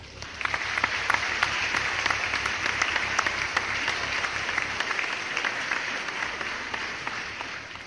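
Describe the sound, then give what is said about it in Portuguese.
Steady applause from a small group fills the whole stretch, dense overlapping claps holding an even level throughout, with no voices on top. “Uma salva de palmas”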